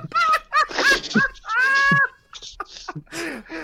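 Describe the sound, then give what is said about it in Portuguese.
Several goats bleat in quick succession, a series of wavering, nasal cries with one longer drawn-out bleat in the middle, loud and clear. “Cabra, cabra, irmão, as cabrinhas nasceram assim num ritmo.”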